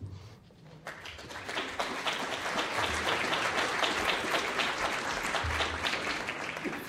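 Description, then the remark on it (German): Sustained applause from a concert audience welcoming the musicians before a piece, a dense patter of many hands clapping that swells after a quiet first second and holds steady and fairly loud to the end. “Ich bitte herzlich um Applaus.”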